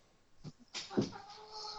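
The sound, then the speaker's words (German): A cat meows during a recording session: a short, soft chirp, then a longer, drawn-out meow with a rising and falling pitch that fades away. Nobody speaks. “Und miau, nervt, guten Tag.”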